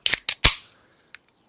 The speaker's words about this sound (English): crack, crack a can one. of World Heavyweight Championship main event level soda. Sweet, sweet, sweet Mountain Dew.